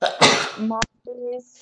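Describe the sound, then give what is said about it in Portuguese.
One sharp sneeze bursts out loudly with a breathy, explosive rush, trailing into a brief voiced sound before someone starts talking again. “saúde. saúde. Obrigado.”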